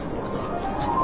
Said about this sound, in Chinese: 你听，这是剪纸的声音，而此刻正在剪刀之下的不是一般的剪纸，它的名字很好听，叫做挂钱。